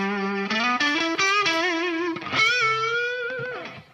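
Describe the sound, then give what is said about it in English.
An electric guitar plays a single-note melody with a distorted, effects-laden tone, stepping upward through sustained notes before a wavering, vibrato-bent note that fades out; no one speaks. “So I'll like write these songs that are kind of like movie soundtrack score stuff, uh, but the guitar is just kind of like the melody instrument.”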